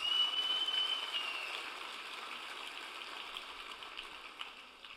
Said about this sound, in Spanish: Dale un aplauso más.